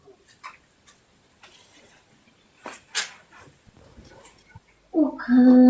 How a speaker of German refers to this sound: Das sind Wellensittiche. Wellensittiche? Ach, mehrere, ja? Ja, das sind, das sind vier, ja.